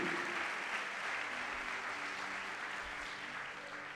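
An audience applauds Jesus during a church service, a dense wash of many hands clapping at an even, sustained loudness for several seconds, easing slightly toward the end, with no talking over it.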